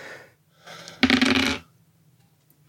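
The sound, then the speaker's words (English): Dice thrown for a constitution roll rattle briefly, then tumble and clatter across a hard tabletop in a loud burst lasting about half a second before settling into near silence. “could you give me a constitution roll?”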